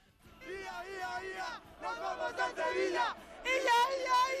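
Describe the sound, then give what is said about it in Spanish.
A large crowd chants the fashionable football chant in unison while celebrating reaching the Copa final in Sevilla: three loud sung phrases with rising, sustained vowels and a rhythmic swing, voices blending into one roaring, melodic shout. “Y el grito de moda.”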